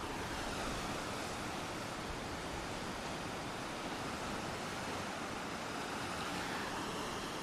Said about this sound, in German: bin extra so ein paar Schritte rausgegangen, direkt zum Meer, weil ich gedacht habe, komm, ich äh, gebe euch ein paar Eindrücke von den Wellen. Und jetzt halte ich mal die Klappe in der Hoffnung, dass ihr das Meer auch wirklich gut hören könnt.